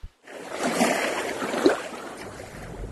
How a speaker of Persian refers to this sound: جریان آب خیلی زیاده صدای قرشش آدم رو کر میکنه